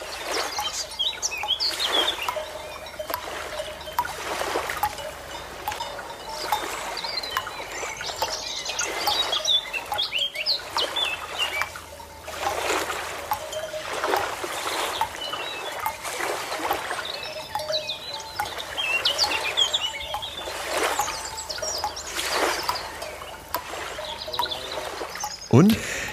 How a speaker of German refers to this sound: Also ich sehe eine Wiese, ich sehe äh, ich sehe die Vögel, ich sehe äh, Kühe mit Glocken und sehe das Meer